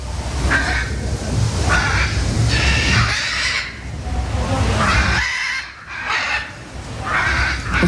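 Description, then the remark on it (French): Harsh, raspy parrot squawks repeat over and over, loud and grating, with brief pauses between bursts of screeching calls, at a zoo. “il te reconnaît ah oui, les perroquets sont quand même des oiseaux qui ont la capacité de reconnaître euh, très facilement euh, les soigneurs qui, les, s'en occupent et sont des animaux qui sont très caractériels.”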